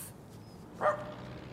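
small dog barking

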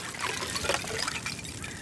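water splashing

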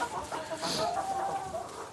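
hens clucking

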